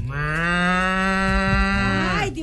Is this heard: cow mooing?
yes